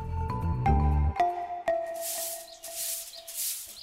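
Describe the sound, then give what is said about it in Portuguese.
A broom sweeps a courtyard in three rhythmic, hissing strokes, each a bristly swish, following a brief burst of plucked tonal notes that leave a faint ringing tone beneath. “O som da vassoura a varrer o pátio parou quando ela bateu ao portão e passos se aproximaram lentamente.”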